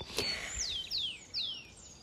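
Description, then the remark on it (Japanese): Wild birds chirp at dawn in a natural spot surrounded by mountains and trees, with three clear descending whistled calls repeating about every half second over a soft outdoor ambience, moderately loud, with no one talking. “でもねここは本当に自然しかないんですよ周りは見渡す限り山で今ねあの まだ寝てる みんな寝てるから大きな声で話せないんだけれどちょっとだけ皆様にもこの鳥の声とか聞いていただきたいなでねこれ聞いてると本当に幸せにねなるんですよ私”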